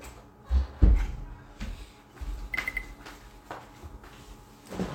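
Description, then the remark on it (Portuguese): A door is opened to let a cat in: a couple of dull thumps, then scattered latch clicks and rattles, with one short faint beep partway through. Nobody speaks. “Então vamos abrir uma porta aqui, senão o gato vai terminar de arrancar, ali Né?”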